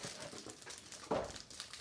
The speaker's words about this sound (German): Oh, jetzt knistert es hier schön.